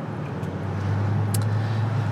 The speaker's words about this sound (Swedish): Eh, och det är inte varje dag man sitter och kör bil i bikini. Men det gör jag nu.